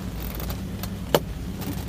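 A vintage car's engine rumbles low and steady as it drives off along a street, with one sharp click partway through and no voices.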